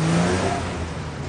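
car driving away

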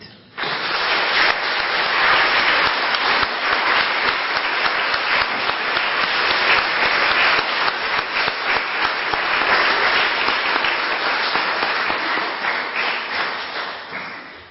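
audience applauding

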